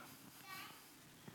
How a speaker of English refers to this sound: You hear a baby in church, that is a sound of life. You stop hearing babies, you better be worried in your church. We get excited when we hear babies around here.